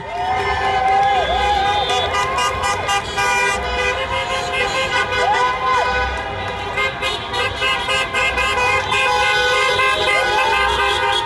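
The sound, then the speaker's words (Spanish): A loud outdoor street celebration in front of the White House in Washington, D.C.: a dense crowd of thousands cheers, shouts, sings and dances while car horns honk repeatedly and overlap, with long blasts and short toots continuing throughout. “Washington, D.C., donde más del 90% vota demócrata y donde miles de personas se reunieron de manera espontánea delante de la Casa Blanca durante horas, cantando, bailando, destapando botellas de champán y también desde los coches.”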